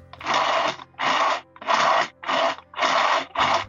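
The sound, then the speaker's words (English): Students imitate a rotary phone being dialed using household items: six short, scratchy whirring bursts in a steady rhythm with brief pauses between them, and no talking. “And my personal favorite, they found a way to mimic the sound of a rotary phone.”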